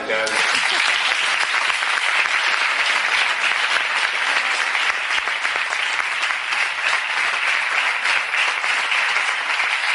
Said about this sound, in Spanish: Eh, eh un aplauso para ellos,